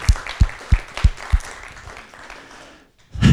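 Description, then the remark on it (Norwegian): Audience applause at a gathering in Bergen, Norway, with several strong, evenly spaced low thumps in the first second and a half, then a softer sustained patter that fades to near silence before a loud burst at the end. “Kan vi gi en applaus til dem, eller?”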